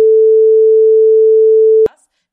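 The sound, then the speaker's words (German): A loud, steady single-pitched bleep tone holds for almost two seconds, then cuts off abruptly, followed by a brief faint tail of sound. “Den musst du piepsen, den Piep!”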